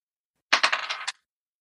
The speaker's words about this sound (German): Ein zweites Mal würfeln, bitte.